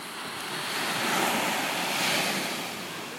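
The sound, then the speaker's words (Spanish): Ocean waves wash steadily onto the shore in a broad, rushing roar that swells and recedes twice, with no voices and a faint breath of wind. “Pero bueno, hoy no les pondré música para que puedan escuchar las olas.”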